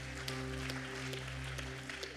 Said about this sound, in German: Lass uns jedes Mal einen großen Applaus geben. Herzlich willkommen.